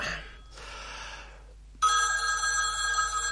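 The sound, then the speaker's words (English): A telephone rings loudly, one sustained electronic ring lasting over a second, following a brief rush of soft hissy noise, as a caller phones in to a radio show and the presenter goes to answer. “Right, let's get to the phone.”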